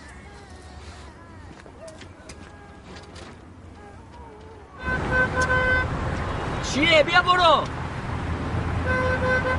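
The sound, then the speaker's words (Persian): Car horns honk in sustained, steady blasts over loud traffic rumble, starting partway through after a quieter stretch of people talking; voices keep talking and shouting beneath the honking. “برای چی بوق میزنی برو بابا”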